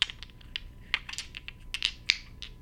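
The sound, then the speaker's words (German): Three dice, received as a gift, are handled close to the microphone, clattering and clicking together in a quick irregular run of sharp, bright taps with no voices. “Das sind drei Würfel.”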